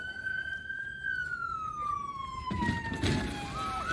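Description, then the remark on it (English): A police car siren wails with a steady, slowly falling tone that holds for several seconds, its pitch sliding gradually downward, with traffic rumble and other noise rising toward the end. “I, I can't believe your cardboard signs didn't stop the police.”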